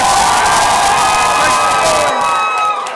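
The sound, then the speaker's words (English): A large live audience in Atlanta, Georgia cheers and whoops loudly and continuously, a dense wall of shouting voices with scattered high-pitched yells that thins slightly near the end. “How y'all doing, Atlanta? What's up, man? Make some noise.”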